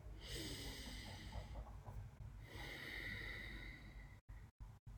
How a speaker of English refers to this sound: I'm going to take a deep breath.